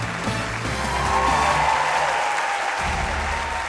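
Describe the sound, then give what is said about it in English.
A large crowd of AT&T employees, on their feet in a huge, packed venue, claps and cheers steadily as company executives march out on stage; dense applause with faint music playing underneath throughout. “Every seat is filled with AT&T employees, and all the big executives march out on stage, and music is playing, and people are on their feet and they're cheering because these are executives.”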